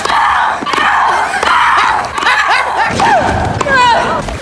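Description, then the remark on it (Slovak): Tennis player Maria Sharapova shrieks loudly and continuously on court, her strained, rising and falling cries repeating with dull thuds underneath as she strikes the ball. “Ale si to predstav, že prídeš domov zničený z práce ako sused Šarapovovej, chceš si ísť skôr ľahnúť a počuješ toto.”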